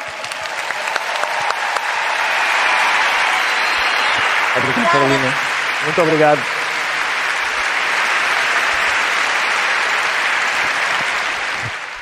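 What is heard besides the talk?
audience applause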